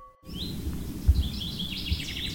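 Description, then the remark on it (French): Several birds chirp and sing in the forest of Chantilly, France, in summer amid lush vegetation, their high twittering calls overlapping continuously over a soft low rumble of outdoor ambience, with no one speaking. “C'est l'été et se promener dans la forêt de Chantilly est juste délicieux. La végétation est luxuriante et les oiseaux chantent.”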